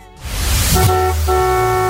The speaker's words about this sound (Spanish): Adelante con los bocinazos del día de hoy.